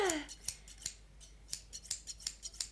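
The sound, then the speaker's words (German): Scissors snipping through strips of fabric, a quick run of crisp cuts in an irregular rhythm, with a faint descending tone fading at the very start. “wandte ihr den Rücken zu und schnitt unentwegt weiter ihre Stoffstreifen.”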